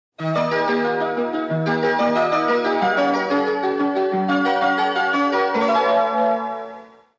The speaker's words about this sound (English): That's the sound of train station music from the Yamanote line in Tokyo, Japan.